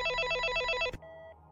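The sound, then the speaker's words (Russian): An apartment building entrance intercom's electronic ringing tone, after an apartment number is dialed, warbles in rapid, even pulses, then cuts off with a click into a shorter, quieter steady beep. No one speaks. “Набрав номер квартиры на домофоне, я слушал гудки.”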